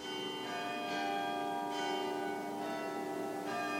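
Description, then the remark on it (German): The glockenspiel bells in the town gate tower of Braunau, Austria, chime in a steady sequence, each new strike arriving about once a second over a continuous, resonant ringing that hangs in the air. No voices. “Das Glockenspiel im Stadttorturm etwa”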